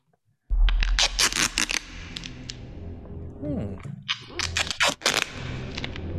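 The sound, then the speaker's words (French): A trouser zipper rasps open in a film trailer, a quick run of sharp ratcheting clicks followed a couple of seconds later by a second scratchy burst, over a low rumbling background. “Quelqu'un dézipe son pantalon.”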